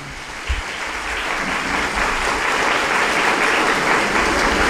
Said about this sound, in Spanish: Démosle un aplauso, ¿verdad?